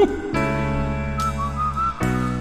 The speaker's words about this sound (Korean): 이 휘파람 소리 이제 자주 들으시면 반갑죠.